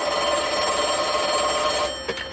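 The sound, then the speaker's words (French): The bell of an old wall-mounted loudspeaker telephone rings loud in one continuous metallic trill, then breaks off near the end with a couple of faint clicks. “prenez ce téléphone mural à haut-parleur.”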